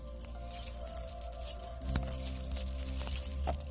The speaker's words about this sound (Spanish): El sonido de llaves que te abran las puertas de la libertad. El sonido de llave que te abran la puerta de la depresión y seas libre.